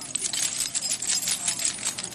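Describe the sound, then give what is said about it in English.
A bunch of keys jangles continuously, a bright metallic jingling shaken for a couple of seconds with steady rhythmic clinks. “Kickoff keys? Really?”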